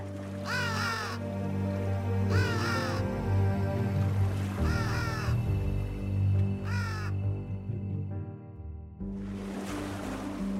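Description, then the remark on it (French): Four loud, harsh crow caws repeat at a steady pace over a constant low rumble of sea and wind, followed by a hissing wash of surf near the end. “Il glissa dans sa poche avant de se fondre dans la nuit, un corbeau sur chaque épaule.”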